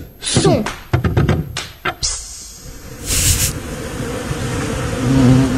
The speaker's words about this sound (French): Ce n'est pas une voix, c'est un brouhaha, omniprésent, entêtant, on dirait un bourdonnement. S'il ne s'arrêtait plus, on ne le remarquerait pas. Incroyable, ce bruit de fond qu'ils font.